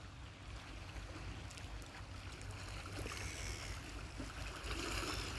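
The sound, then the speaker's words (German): Steady sea water washing against a beach of small and large stones and boulders, sheltered from the wind behind a small wood, a continuous wash with a deep low rumble and soft splashing texture, slightly louder toward the end. No voices. “Ich sitze hier windgeschützt hinter einem Wäldchen auf einem Strand aus kleinen und großen Steinen, Findlingen.”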